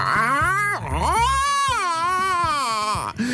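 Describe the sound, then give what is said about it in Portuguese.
A person imitates an angry cat's growl, producing one long, wavering, yowling cry that rises and falls in pitch. It is loud, lasts about three seconds, and has no other talk. “Eu não sei se vocês já ouviram um gato irritado, porque não, não, tem nada a ver com os doces miados.”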